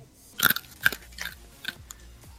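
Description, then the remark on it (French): Crisp crunching of a dry treat being bitten and chewed by a person during a Discord call, with about five sharp crackling bursts spaced unevenly over a couple of seconds, no voices. “d'un coup, on entend … en train de croquer”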